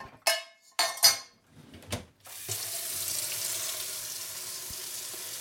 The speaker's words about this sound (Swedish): Okej, okay, två stora tekoppar vatten ner i en panna.